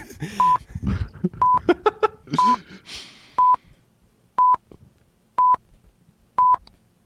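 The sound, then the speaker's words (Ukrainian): A run of seven evenly spaced telephone keypad beeps, used as an intro jingle. Each beep is short and steady in pitch, ticking along about once a second. The first few overlap a busier burst of sound before the tones continue alone. “скільки піків ти додав? Десять.”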